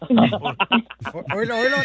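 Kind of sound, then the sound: animal, horse neighing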